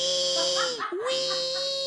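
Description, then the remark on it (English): A dog named Red squeaks a squeak toy loudly, one long high-pitched whine that briefly dips and wavers in the middle before holding steady again. “your dog can't play with a squeak toy right now”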